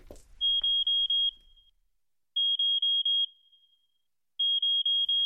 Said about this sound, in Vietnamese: Tiếng còi báo động vang lên.